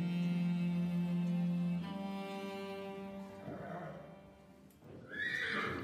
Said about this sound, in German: Das ist also der Gaul, um den so ein Wirbel gemacht wird.